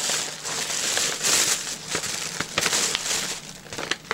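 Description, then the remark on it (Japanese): Crinkling of a plastic Doraemon gift bag being handled, a continuous papery rustle broken by sharper crackles and snaps throughout, fairly loud with no speech over it. “へえこのドラえもんの袋可愛い可愛、ね、いね”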